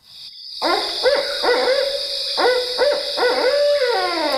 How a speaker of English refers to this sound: Okay, here comes the barred owl. And I'm going to let this one play a little bit because it makes some just really unusual sounds. Barred owl.